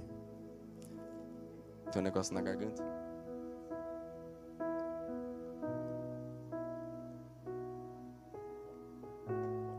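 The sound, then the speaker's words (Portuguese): Water is poured briefly into a glass for drinking, a short splashy trickle, while a person talks over a steady background of sustained tones. “Deixa eu tomar um pouquinho d'água antes que eu.”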